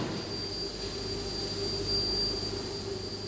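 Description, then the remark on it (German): A steady, high-pitched whistle from robot-guided lasers cutting steel plates in a huge factory hall in Wohlfurt, southeast of Lake Constance, where Doppelmeier makes parts for cable cars, rides over a constant industrial roar and low hum, unchanging throughout with no voices. “Mit einem schrillen Pfeifen schneiden robotergeführte Laser Stahlplatten zu.”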